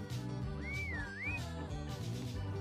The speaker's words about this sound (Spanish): Chifla.